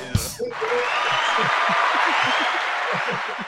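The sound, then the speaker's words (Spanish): A crowd breaks into steady, dense applause after a joke, following a brief sharp sound at the start, the clapping holding at an even loudness for about three seconds with faint voices murmuring underneath. “O sea, chiste y aplauso.”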